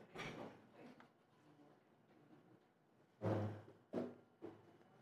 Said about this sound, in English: Should we open the door